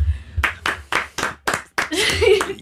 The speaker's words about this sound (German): Krieg ich einen Applaus?